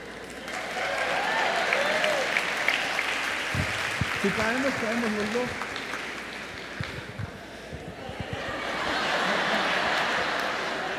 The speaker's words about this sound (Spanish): Un aplauso para ella.